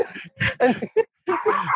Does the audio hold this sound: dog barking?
yes